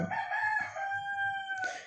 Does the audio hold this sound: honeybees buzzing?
no